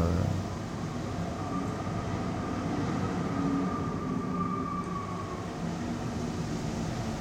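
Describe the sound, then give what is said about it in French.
Wind of a snowy blizzard rushes through fir trees in a steady, unbroken roar, a deep rumbling wash much like a passing train, holding fairly loud for several seconds with no voices. “C'est euh, Un petit peu comme un, chemin de fer, qui, oui, un train qui passe quand il y a du vent dans les sapins.”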